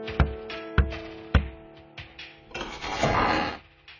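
Three loud, evenly spaced knocks on an old, dark red wooden door with an old frame and lock, in an alley of old houses, followed by a couple of softer thuds and a brief rasping, creaking swell as if the door is being moved.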